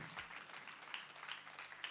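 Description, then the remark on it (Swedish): An audience at a Hillsong Church Sweden service applauds steadily throughout, a dense, even wash of many hands clapping at once, with a few sharper claps standing out now and then. “Sätt ihop dina händer i en applåd till,”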